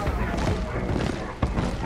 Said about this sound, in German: Donnern, das wohl nicht von den Boxen kommt, sondern von einer Unmenge an Schritten, die draußen vor dem Club vor sich gehen, schallert langsam in die Räumlichkeiten des Clubs hinein. Von den meisten Gästen jedoch unbemerkt.